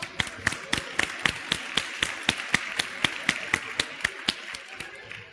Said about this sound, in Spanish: Bravo. Un aplauso, ¿no? Un aplauso.